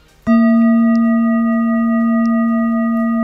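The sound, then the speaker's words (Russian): A large singing bowl is struck once and rings out with a deep, steady hum and shimmering overtones, sustaining loudly without fading, alone with no voices. “вот сейчас большая чаша, внимание, да, чтобы наши слушатели чаша. понимали, что сейчас будет звучать большая чаша.”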